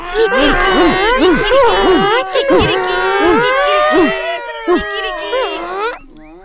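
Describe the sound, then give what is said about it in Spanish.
A donkey, dog, cat and rooster, stacked on one another at a window, cry out all at once on an agreed signal. Overlapping braying, barking, meowing and crowing form a loud, chaotic jumble that rises and falls for about six seconds, then breaks off. “Así puestos, a una señal convenida, rompieron a gritar todos a la vez.”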